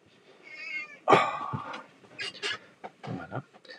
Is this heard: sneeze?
no